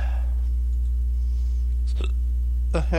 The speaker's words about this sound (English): hiccups for some reason. Sorry about that. Um. Got in the wrong pipe, I think.